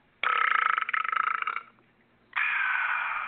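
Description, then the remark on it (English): A loud, drawn-out burp on live radio with a rattling, pulsing texture, followed after a brief pause by a second, smoother belch. Prominent, with no talking. “Not the burp, I meant, can we please just have your name?”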